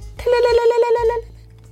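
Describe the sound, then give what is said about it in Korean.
A voice imitates a telephone ringing with an incoming call: a quick, trilling burst of about a second, fairly loud, rattling out rapid repeated notes before fading into a low background hum. “하여간 그 여자 알바를 채용했고 걸려오는 전화 한 통. 탈랄랄랄랄랄랄.”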